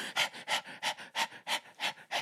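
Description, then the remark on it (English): A person imitates an excited dog panting as it runs up to a cat: quick, rhythmic breathy huffs, about seven in a row, fairly loud, with no talking. “any dog, dogs will go fucking running up to cats where no matter how much the cat hates them, they'll go run up and go.”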